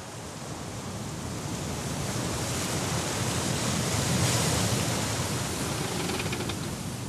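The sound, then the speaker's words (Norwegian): A continuous wash of ocean waves out at sea, a broad steady roar that swells slightly after the opening second and holds for the rest, with no voices over it. “Ute på havet møter de nye problemer.”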